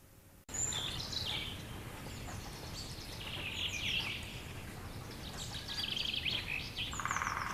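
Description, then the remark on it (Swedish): Birds chirp and twitter in the trees, a steady outdoor chorus of overlapping high calls from several directions, with no one talking, heard from an outdoor swing. “Vi sitter här nu i utegungan och fåglarna kvittrar i träna.”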